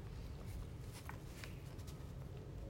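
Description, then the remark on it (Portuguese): Soft, intermittent crinkling of an empty paper bag as a cat shifts around inside it, a few faint rustles scattered over a low background hum, with no talking. “É meu gato. Eu pus uma sacola aqui vazia e ele resolveu, ó.”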